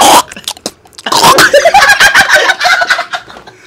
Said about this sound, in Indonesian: Ada yang batuk nih, ada yang batuk nih.